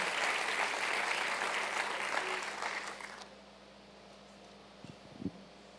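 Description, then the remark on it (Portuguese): A crowd claps steadily in a dense, even wash of applause for about three seconds, then it stops abruptly, leaving a low hum and a couple of faint bumps. “Pode aplaudir, querida.”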